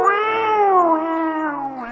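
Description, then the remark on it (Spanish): A person imitates a cat with one long, drawn-out yowling meow, loud, its whiny pitch sagging slowly and then lifting slightly at the end, with no other talk. “Sí, los gatos hacen así. ¡Miau!”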